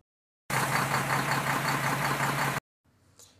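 A truck arrives at midday: its engine rumbles loudly and steadily for about two seconds, a low droning idle with broad noisy texture, then cuts off abruptly, leaving a faint quieter sound afterward. No talking.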